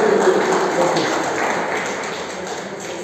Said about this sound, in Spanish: Gracias, ya pueden volver a su lugar. Un aplauso para los padres.